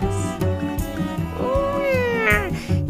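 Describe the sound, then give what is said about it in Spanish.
A cat lets out a single drawn-out meow that rises and then falls, clear, over a steady droning background. “Me dijo que siguiera maullando por la justicia.”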